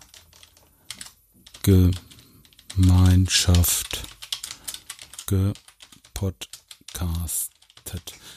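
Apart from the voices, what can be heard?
loud computer keyboard typing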